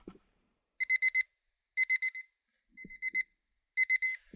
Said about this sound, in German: Das, lieber Marc Brotz, ist nichts anderes als eine super Eieruhr.